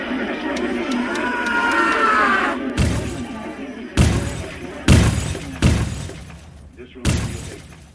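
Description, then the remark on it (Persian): A jumble of different television channels playing over each other and background noise gives way to five loud smashing crashes at irregular intervals, with objects shattering and breaking, each impact sharp with a brief ringing tail, at the end of a music track. “آخر این ترک صدای کانالهای مختلف تلویزیون رو میشنویم که دارن برنامه پخش میکنن صداها میره تو هم دیگه که یهو پینک فریاد میکشه و صدای شکسته شدن چند تا چیز میاد”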